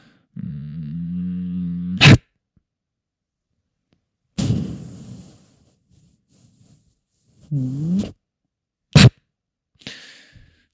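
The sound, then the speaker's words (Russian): A person playing with a toy crocodile imitates the sounds of a real crocodile with low, buzzing growls and breathy hisses in several separate bursts, broken up by two sharp, loud snapping claps. “Я просто издаю звуки, которые издает реальный крокодил.”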